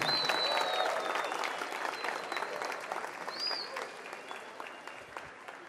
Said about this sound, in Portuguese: Vamos aplaudir a vida deles? Os que podem. Vamos aplaudir forte, gente.